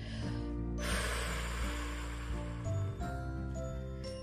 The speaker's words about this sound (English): or if you're doing um, a big exhale slowly through pursed lips, it could sound like